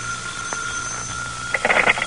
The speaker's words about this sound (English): And when the phone rings, it's for you.